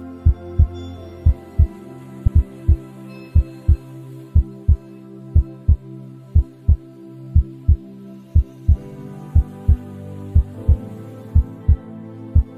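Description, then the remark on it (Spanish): A loud heartbeat thumps in steady paired beats, roughly one per second, over a low sustained musical hum with no voices. “por decirlo de alguna manera, voy a escuchar más allá del latido la música del corazón.”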